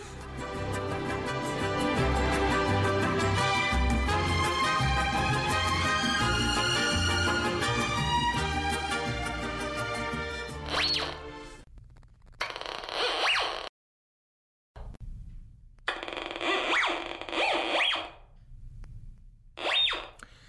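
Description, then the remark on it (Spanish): A metal detector beeps and whines with a steady, buzzy electronic tone that wavers in pitch, then breaks off into short bursts of rough scraping noise separated by brief silences. “Si ustedes son buscadores usuales de tesoros, seguro eh, reconocieron el sonido de uno de estos detectores de metales que a veces nos podemos encontrar en la playa donde muchas personas regularmente buscan sorpresas enterradas en la arena.”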